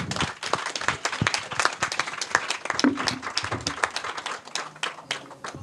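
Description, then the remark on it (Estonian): An audience applauds steadily for the discussion participants, politicians, many hands clapping in a dense, continuous patter that holds fairly loud throughout, with a faint voice briefly audible beneath the clapping. “aitäh ja veel üks aitäh ja veel üks aplaus meie, meie vestlejatele, poliitikutele”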